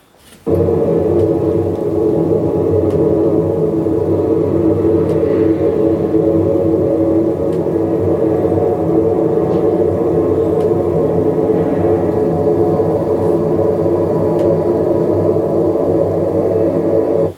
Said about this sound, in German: Okay, ich weiß, was es ist. Ja. Ähm, das ist äh, aufgenommen auf einer Flugzeugtoilette. Und das ist ähm, das Geräusch, was man da hört.